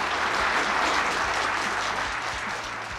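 A burst of applause from a group, dense steady clapping that fills the whole clip and starts to taper slightly toward the end, with no voices standing out.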